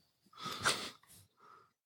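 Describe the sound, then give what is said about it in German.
A loud, exaggerated breath drawn in sharply and pushed back out, followed by a shorter, softer exhale, with no talking. “Aber ich habe ja von einem äh, sehr äh, guten Wissenschaftler mitbekommen, dass zum Leben man gar nicht so viel machen muss. Vor allem eine Sache. Atmen.”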